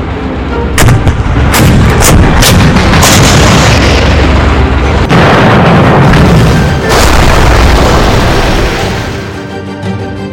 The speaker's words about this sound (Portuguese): os canhões antitanques alemães abriram fogo contra os tanques britânicos assim que suas silhuetas surgiram na luz do sol nascente.